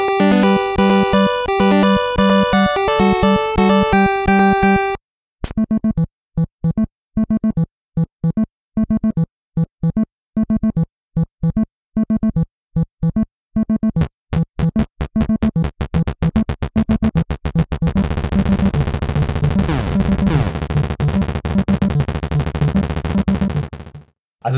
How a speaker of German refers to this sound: Ja, wie gesagt, vorhin habe ich ja gesagt, beim NES gibt es eine Fanfare und nochmal so ein ganz komischer eingespielter Marsch mit zwei, drei Tönen. Also ganz merkwürdig und nervig und mehr gibt es da nicht.